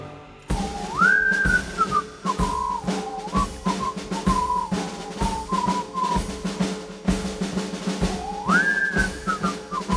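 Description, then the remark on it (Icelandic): A clear, loud whistled melody rises and glides over a steady drum beat played by the same musician who whistles, the tune repeating its phrase near the end with no voices present. “í miðbyggjilagsins er hann bara einn hann spilar á trómurnar og, og svo flautar hann”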